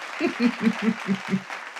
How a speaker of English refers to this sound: I think I'm going to hit that applause button again. Woo wee! What a fun tool.